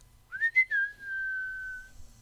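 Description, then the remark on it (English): A lone whistled western showdown tune: a few quick rising notes followed by one long, steady held pitch, clear, with no talking. “And the whistling started.”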